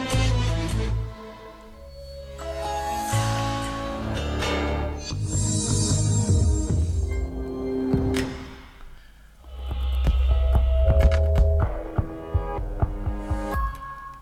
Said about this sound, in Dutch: Dus als je kijkt naar uh, automerken bijvoorbeeld. Mhm. Ik zal je zo een paar logo's laten horen, een paar audiologo's. Uh, klinkt allemaal hetzelfde. Dit zijn er zes achter elkaar.